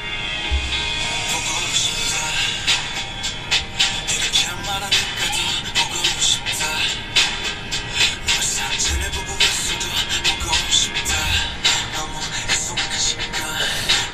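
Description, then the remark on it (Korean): The opening of a K-pop song plays at a steady, fairly loud level: layered sustained tones over a dense, shimmering texture with regular rhythmic accents and occasional deep low thumps. “이 앞에 전주만 들어도 가슴이 음. 짠합니다.”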